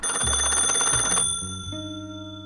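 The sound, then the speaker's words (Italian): A telephone rings loudly with a dense, rattling bell burst lasting about a second, then settles into steady, sustained ringing tones that shift in pitch a couple of times. No one speaks. It rings just before noon in a reading of The Great Gatsby. “Poco prima di mezzogiorno il telefono mi svegliò.”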